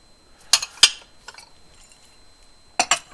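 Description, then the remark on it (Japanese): Dishes washed in the dishwasher that morning clink as they're put away into a cupboard: a few sharp knocks early on, a soft pause, then a quick double clatter near the end, with no one talking. “これ食洗機は朝回したんだよな僕は 自分がちゃんとやったかどうかよくわかんないあできてるな綺麗になってる OK 朝食洗機かけた分を食器棚に戻しますよ”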